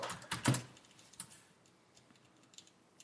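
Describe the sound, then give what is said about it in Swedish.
Muted, soft keystrokes from a keyboard with silent switches: a quick cluster of dull taps, then a few fainter, scattered presses trailing off, with no voices. “Ja, det här är ju de som sagt, de här tysta brytarna som vi pratade om i podden för ett tag sedan.”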